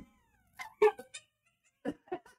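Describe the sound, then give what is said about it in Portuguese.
A female dog lets out a few short, high whining howls in two quick bursts, fairly quiet, with brief pauses between the cries and no one talking. “O pior é que ela começa a uivar”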